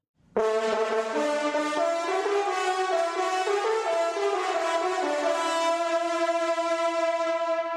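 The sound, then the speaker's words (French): A French hunting horn (cor de chasse) plays a loud, brassy melody of sustained notes that shift in pitch, sounding continuously without pause for several seconds with no voices. All the notes are played only with the player's lips. “On écoutait le corps de chasse.”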